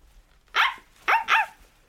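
A dog barks three times, one bark, a short pause, then two quick barks close together, bright and yappy with no voices alongside.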